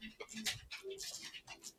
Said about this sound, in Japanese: うちの、うん、ワンちゃんが。起きた。起きましたね。おはようございます。